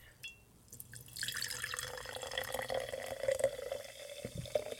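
A drink base pours steadily into a glass for several seconds, a splashing, gurgling stream that begins after a short pause, with a faint drip or click just before it starts.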